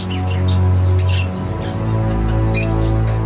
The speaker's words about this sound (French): Daniel Cano, qui était toujours patraque, a alors voulu s'occuper de ces oiseaux exotiques, son dada.